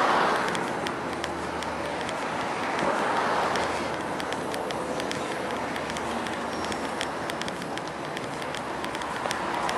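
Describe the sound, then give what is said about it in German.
Dense, constant roar of heavy street traffic fills the scene, a steady wash of engine and tire noise with scattered sharp clicks and clatters, fairly loud, with no voices standing out, on a busy street with many people out. “Sehr viele Leute unterwegs und immer noch sehr viel Verkehr, wie ihr hören könnt.”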